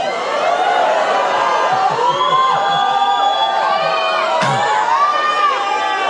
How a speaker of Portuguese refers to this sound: Sabe o que é exultar? Gritos extravagantes de alegria.